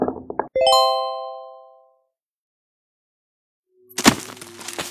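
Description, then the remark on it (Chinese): A few quick clicks and a ringing chime that fades into silence, then a loud, sudden crash of a heavy object hitting the ground, followed by a rough, rattling decay. “似乎有一个重物落地的声音在你的耳畔响起。”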